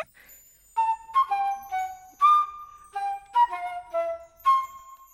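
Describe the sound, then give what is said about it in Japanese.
A breathy flute plays a short, simple melody of about eight sustained notes, close and clear, with brief gaps between phrases and no voices. “続いてこれなんだユニコーンフルートユニコーンって知ってる長い角が生えてるお馬さんみたいな生き物なんだけどこれはその角を使って作ったフルートなのこれも吹いてみるね”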